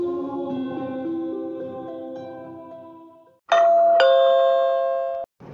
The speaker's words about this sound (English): Huh, that's strange. I'm not expecting trick or treaters, and what's even stranger is I don't have a doorbell.